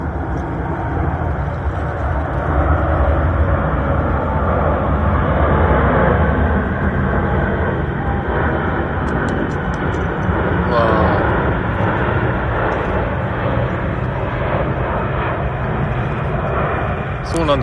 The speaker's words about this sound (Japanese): ここね、飛行機が通るんでね、すごい音、飛行機の音聞こえます、今。